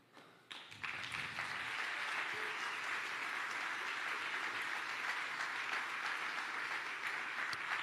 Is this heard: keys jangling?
no